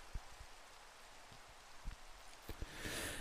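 Soft, steady rain hisses evenly, broken by scattered drops that tap and patter irregularly. The shower swells slightly louder toward the end, with no voices present.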